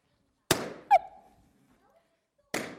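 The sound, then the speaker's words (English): Two loud balloon pops, made with a popping device, about two seconds apart, each a sharp crack with a short fading tail, and a brief high squeal or yelp just after the first pop. “anyone who is not, doesn't like the sound of popping balloons, put your fingers in your ears now”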